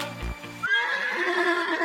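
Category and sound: animal, horse neighing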